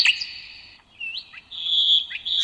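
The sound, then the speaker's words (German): Songbirds sing and chirp in a quick run of bright, high warbling phrases and short whistled notes, clear, with no voices present. “Schon zwei Jahre nach der Hochzeit wächst ihr Vogelbestand auf 30 Arten an.”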